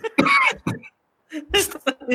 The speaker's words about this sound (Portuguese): Eu acho bom você abrir esse programa com eu tossindo.